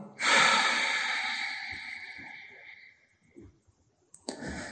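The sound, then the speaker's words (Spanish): During a guided breathing exercise, a deep breath is drawn in, followed by a long, forceful exhale pushed out through the nose, then a quiet pause and a brief sharp breath at the end. “Inhala profundo. Y sácala nasalmente con fuerza pero suave.”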